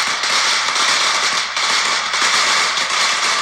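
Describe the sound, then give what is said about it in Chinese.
A string of firecrackers goes off in a loud, continuous burst of rapid sharp pops and crackles, a dense unbroken rattle with only a momentary dip partway through, set off by companies reopening for work on the sixth day of the Lunar New Year. “无论如何，春节的假已经放完喽，结束了七天的春节假期，公司行号热闹开工放鞭炮。”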